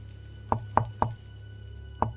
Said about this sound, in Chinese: 办公室的门虚掩着。我敲了敲门。